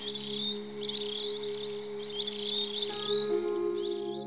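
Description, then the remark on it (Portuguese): Birds sing in a quick series of bright, repeated chirps over a steady, droning hum of insects, with no one talking. The chirps carry throughout. “E então disse o príncipe: Mestre, pude ouvir o canto dos pássaros”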